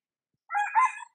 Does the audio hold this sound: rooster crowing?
yes